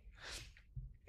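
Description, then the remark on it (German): A single quick, muffled sneeze, a breathy hiss of air that fades into a soft low thump, fairly quiet and heard alone without any talking. “Oh, Gesundheit. Oder sagt man das, was auch immer du da gemacht hast?”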